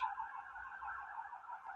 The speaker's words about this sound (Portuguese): Olha, tem alguém morrendo na cidade, ela tem que ser atendida por uma ambulância, mas está atrapalhando o meu podcast.